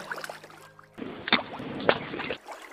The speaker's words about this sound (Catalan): El llop la va veure i va agitar una pedra dins l'aigua